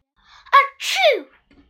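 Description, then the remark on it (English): A narrator imitates a wolf's big sneeze: a short sharp intake and catch, then a loud, drawn-out burst of breathy noise that falls away, heard alone. “Before the timid little pig could reach the door, the wolf began to sneeze and sneeze. Achoo!”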